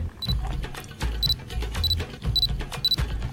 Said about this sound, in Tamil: இது வந்து focus sound நம்ம எங்கே ஃபோக்கஸ் வச்சுருக்கோமோ அங்கே ஃபோக்கஸ் ஆயிடுச்சுன்னு தெரிஞ்சிச்சுன்னா இந்த மாதிரி ஒரு பீப் சவுண்ட் வரும் இந்த மாதிரி ஒரு பீப் சவுண்ட் வரும் ஸோ இது வந்து ரெடி டு டேக் அப்படிங்கிற மாதிரி